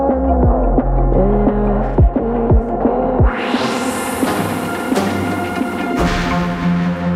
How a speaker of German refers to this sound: und auch mit dem auch noch dabei, was ihr im Hintergrund hört, mit dem Remix